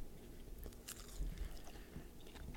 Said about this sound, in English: Sorry if you heard that bite. That was me eating a bite of baby spinach.